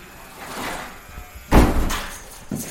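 A door is pushed open with a sharp, loud thud about halfway through, followed by a brief rattling scrape and a softer knock near the end.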